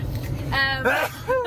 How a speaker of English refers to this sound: um, bless you.